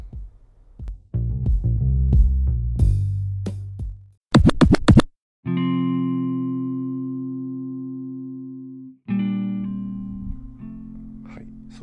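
A brief electronic music interlude: a burst of layered synth chords, a short choppy stuttering section, then long sustained buzzy synth tones holding steady before shifting to a new chord.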